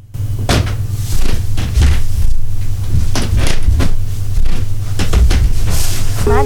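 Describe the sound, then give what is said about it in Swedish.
Wooden studio floorboards creak and knock repeatedly as someone shifts weight across them, fairly loud, over a steady low hum, ending in a drawn-out, wavering creak. “Filer till kaffets studiogolv eh, knarrar också”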